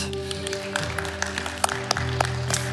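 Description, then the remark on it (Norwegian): An audience at a Sunday church service applauds the volunteer helpers with a dense, steady patter of clapping and a few sharper claps standing out, while low sustained tones hum underneath throughout. “Vi alle frivillige medarbeidere som står på her og har gjort det her til en sånn fantastisk søndag, en skikkelig applaus.”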